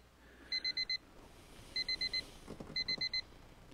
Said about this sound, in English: Do you hear that? Do I hear what? That's the very first time... That's the very first time that the countdown clock has actually given me sound on the alarm when I run to zero.